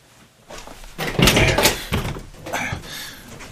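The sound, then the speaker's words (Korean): An overturned shoe is kicked aside and a front door is handled and opened, with a few thuds and a sharp latch-like clatter, followed by softer scuffing and creaking as it swings. Moderately loud, with no talking. “엎어진 해미의 신발을 툭 차고 문을 열었다.”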